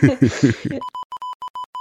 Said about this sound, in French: Tu mettras des bips au montage.